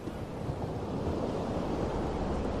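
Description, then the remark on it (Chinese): Ocean waves wash continuously onto a beach, a steady, loud, low-heavy rushing roar of surf with no distinct breaks between swells. No voices are heard. “感受大海的拥抱，专心静气的聆听着大海的声音。”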